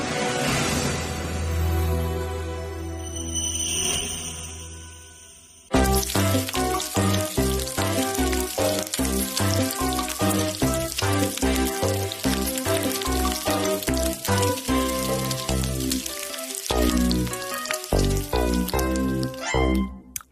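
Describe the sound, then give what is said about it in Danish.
Bacon sizzles and crackles in a frying pan for about five seconds, a steady hiss, before loud rhythmic music abruptly cuts in and plays to the end. “Nu skal vi, som lyden måske angiver, til at snakke en lille smule om kødets eget krydderi. Vi skal til at snakke om bacon”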